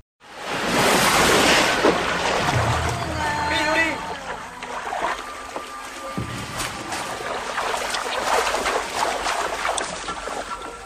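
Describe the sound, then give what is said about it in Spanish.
Water rushes and splashes steadily throughout, a full wash of sound, with soft sustained musical tones drifting over it, in a film soundtrack set in the jungle. “Podríamos pensarlo incluso como un motivo, pero noten cómo el sonido del agua complementa la atmósfera sonora.”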